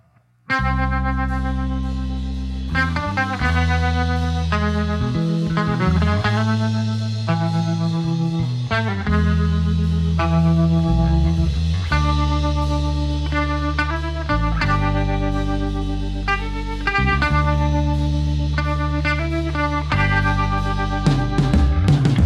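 A band plays the title track of its new EP, a steady rock track with a thick distorted bass guitar driving low, sustained notes under layered, effect-heavy guitars and cymbals. No one speaks.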